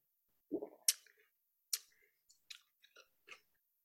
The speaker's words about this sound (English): All right. Well, let's go ahead and take a little sip here.